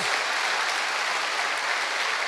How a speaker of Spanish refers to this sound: ¿Cuántos dicen amén? Eso merece un fuerte aplauso al que vive por los siglos de los siglos.